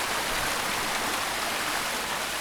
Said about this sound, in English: So we're walking along the trail and we chance upon our first waterfall.